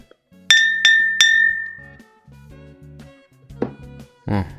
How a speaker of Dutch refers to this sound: Ik tik tegen een glas aan met een ander glas. En daarmee sluit ik dan de podcast af.